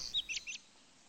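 A blackbird sings a quick run of three or four high, bright chirps, lasting under a second, then quiet air with no voices.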